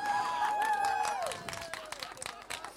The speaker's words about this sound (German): Weiß nicht, was es da zu Klatsche gibt, ey.